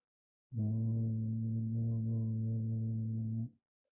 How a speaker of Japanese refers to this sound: そして、適当な音をハミングしてください。できるだけ小さい音で。それを人差し指としましょう。うちょっと低い音を中指。さらに低い音、薬指。